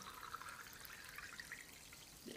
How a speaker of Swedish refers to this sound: Nu eh, kommer det låta lite grann här i mikrofonen. Vi har lite champagnevatten.